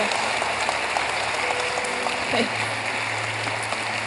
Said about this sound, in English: Will you clap your hands for her?